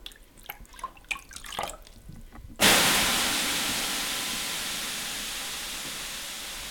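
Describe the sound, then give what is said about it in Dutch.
Scattered water drips and small splashes for a couple of seconds as fresh water is poured, then a sudden loud hiss of steam bursts up and keeps rushing steadily, fading only slightly, in a Swedish sauna. “Overgiet je jezelf met fris water en stoom je.”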